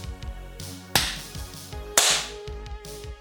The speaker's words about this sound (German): Dann einmal äh, den, den äh, Synchronisationsklatscher.